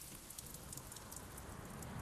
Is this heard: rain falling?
yes